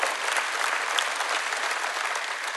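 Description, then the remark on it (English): A crowd applauds steadily, a dense, even patter of many hands clapping at a constant loudness throughout, with no voices breaking through. “I'm guessing, I'm guessing the, uh, the delayed clap there was a late picture.”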